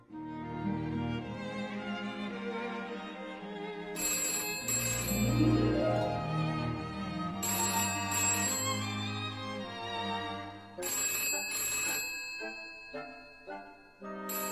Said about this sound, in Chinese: 电话铃响了。